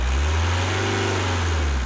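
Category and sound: vehicle, car engine revving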